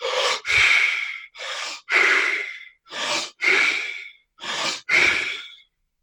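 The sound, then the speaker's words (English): Rapid, deep controlled belly breathing in a pattern taught by Wim: four quick cycles, each a sharp inhale followed immediately by a forceful exhale, in a steady rhythm with short pauses between and no talking. “And there's a lot of different breathing patterns that Wim has taught over the years, but basically, deep controlled belly breaths is the way to go. And it's about this pace.”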